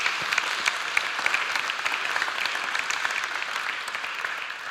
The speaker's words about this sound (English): And can we give the pod leaders a big round of applause for all they're doing, who are leading these small groups?